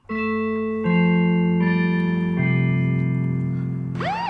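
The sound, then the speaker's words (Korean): A loud, bright golden-bell sound effect signalling the start of a radio quiz segment: sustained electronic chime tones step upward four times, then end in a quick swooping flourish. No voices, just the jingle on its own. “딥인더 나이 골든벨이 울리면 어, 여러분들이 이제 준비를 하셔야 돼요.”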